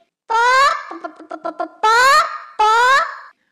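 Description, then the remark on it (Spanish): Chickens clucking: a loud, drawn-out squawk, a quick run of short clucks, then two more loud squawks, with no one speaking. “Entonces, ¿tendría una casa muy grande con gallinas?”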